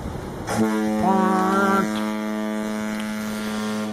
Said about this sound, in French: Oui, oui, cette corne de brume m'explose les tympans à chaque fois. Faudra réfléchir à une version plus confortable, un genre de petite corne de brume ou, euh, je sais pas moi, un murmure de brume.